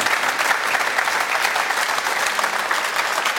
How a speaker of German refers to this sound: Aber wo, ja, wer, wer, klatschen will, gerne.